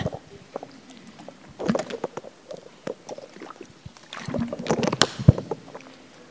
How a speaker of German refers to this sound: Schnell einen Schluck Wasser